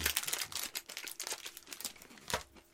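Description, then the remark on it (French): Crisp crinkling of a paper Crispy Crunch candy bar wrapper, a dense run of rustles and crackles lasting a few seconds with a sharper burst near the end, no voices. “On va faire un test de papier.”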